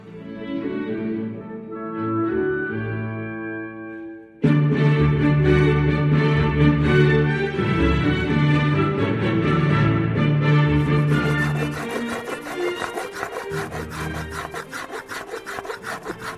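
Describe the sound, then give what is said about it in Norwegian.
A violin maker's hand plane shaves a piece of wood that is to become a new instrument, with steady rasping strokes that grow louder after a few seconds and turn into quicker, rhythmic passes near the end. “Dette er lyden av verktøyene til Jacob von der Lippe han høvler her til et trestykke som skal bli et helt nytt instrument”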